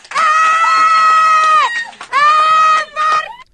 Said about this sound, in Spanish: así gritó cuando le dieron el Grammy, ¿no?